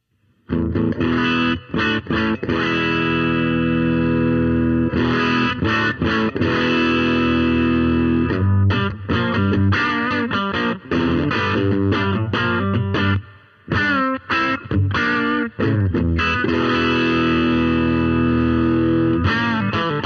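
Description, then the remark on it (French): A heavily overdriven electric guitar, played on the bridge humbucker with the preamp gain turned up, plays loud, sustained chords and riffs with thick, gritty distortion, continuing almost without pause for the whole stretch, with only a few brief breaks. No voices are heard. “On va tout de suite monter le gain pour voir un peu ce que ça donne.”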